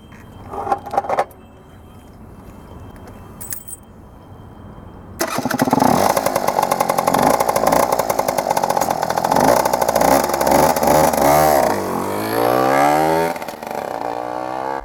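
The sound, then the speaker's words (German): A moped or motorcycle engine clicks and starts after a few seconds, then idles loudly and revs up and down with rising and falling pitch, with no talking. “Krach ist hier immer noch ein falsch verstandenes Statussymbol”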